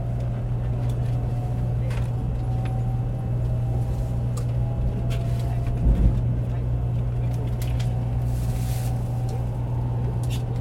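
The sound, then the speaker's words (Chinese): A Chinese high-speed rail train starts to move and accelerates, heard as a steady low electric hum and a broad, even rumble, with a faint motor whine that speeds up and slowly climbs in pitch and a brief thump midway. “好，比如说现在高铁启动喽。”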